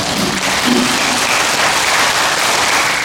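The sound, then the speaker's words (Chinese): A crowd claps steadily for about three seconds, a dense, even wash of many hands with no pauses and no voices. “我们啊，拍手”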